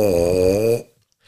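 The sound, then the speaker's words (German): A single buzzy, brassy note blown on a tuba mouthpiece, held steadily for under a second and then cut off, leaving near silence. It's fairly loud, with no talking. “Ich weiß nicht, kannst du auf dem Mundstück was vorspielen?”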